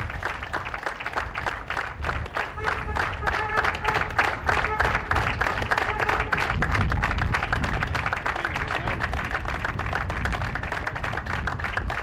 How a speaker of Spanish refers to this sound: y este homenaje, este aplauso al médico joven fallecido en el día de hoy, este sábado, en el Sanatorio Güemes, y por eso este aplauso sostenido, el primer médico del SAME que fallece por COVID-19.